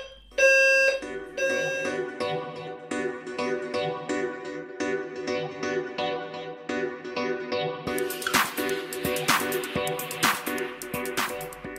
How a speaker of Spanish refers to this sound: Aquí se activa la alarma de fuego.